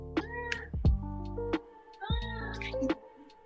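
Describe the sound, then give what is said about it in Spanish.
A cat meows repeatedly, drawn-out harmonic yowls rising and falling, with a couple of sharper calls in quick succession and a faint voice in the background. “bueno, eres un gato”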